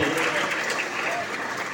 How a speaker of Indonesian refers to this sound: Terima kasih tepuk tangan dulu.